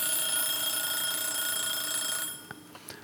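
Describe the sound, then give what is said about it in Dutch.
A small bell rings steadily and fairly loudly for about two seconds, then cuts off, leaving a few faint clicks and taps afterward. No voices are heard. “als de elektriciteit uitvalt of het klokje gaat, dan heb je een probleem.”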